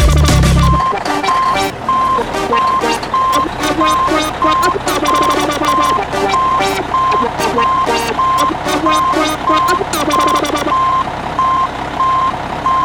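A pop song with a steady electronic beat carries a repeating high-pitched reversing beep woven through it like a truck backing up, pulsing evenly for most of the track before stopping near the end.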